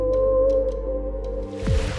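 Whale song: sustained low, droning tonal moans with steady harmonics, ending in a sweeping, sliding call near the end of the brief two-second stretch. No voices.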